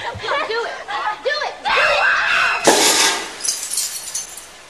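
Wavering, high-pitched screams are cut off by a sharp shattering burst as a light bulb explodes, followed by a second loud crash of breaking glass that fizzles away, in a scene from a De Palma film.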